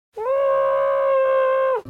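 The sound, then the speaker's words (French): A person lets out one long, sustained scream away from the microphone, held at a steady high pitch for about a second and a half before cutting off, with no talking around it. “Attendez, je vais crier quelque part.”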